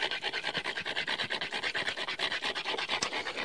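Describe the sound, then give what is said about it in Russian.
Dry stone grinding against stone without water, smoothing the edge of a stone blade and throwing sparks and a little smoke from the friction: quick, steady back-and-forth strokes, a harsh hissing rasp repeating about five times a second, moderately loud, with no voices. “Когда вот сейчас идет работа без воды, то заметно, как э, проблескивает искры э, и э, даже дымок э, какой-то возникает от этого сильного трения камня о камень.”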